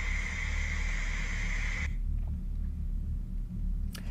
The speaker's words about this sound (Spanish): Hace unos días aparece esto en mi televisor. No hay canales que no muestren este cartel. Otra vez no quiero que pase lo mismo, por favor. El sonido es estática pura.